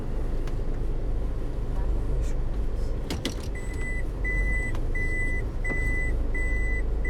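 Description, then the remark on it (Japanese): A car's warning chime beeps steadily, about seven short, evenly spaced electronic tones, over a constant low engine and road rumble, with a couple of clicks just before the beeping starts, as the driver stops the car. “ピーピーうるさくてごめんなさい”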